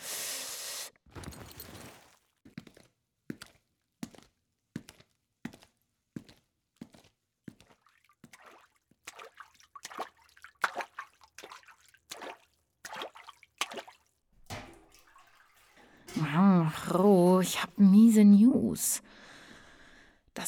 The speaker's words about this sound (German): Wasser reicht gerade mal so, um den Bucket zur Hälfte zu füllen.